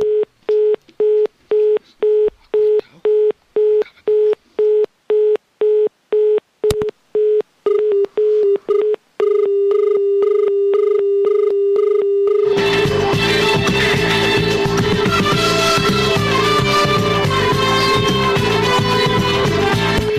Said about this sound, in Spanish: Bueno, ya ahora ya no escuchamos el, ruido del teléfono que estaba ahí dando señal de comunicando.